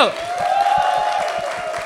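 An audience claps steadily, a dense patter of many hands at a moderate level, with a sustained mid-pitched tone running through the applause and no one speaking.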